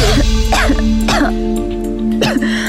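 A person coughs up blood in three or four harsh, wet bursts spaced a second or so apart, fairly loud, over a steady humming musical drone, in the drama series Ketika Cinta Tak Sempurna.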